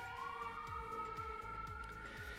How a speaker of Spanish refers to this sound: Dejemos que pase la ambulancia.